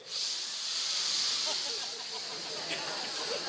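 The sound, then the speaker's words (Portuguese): A voice imitates a long, never-ending sniff: one steady, airy, hissing inhale that lasts several seconds without a break, fairly loud and with no talking over it. “Não, você pensa numa fungada interminável.”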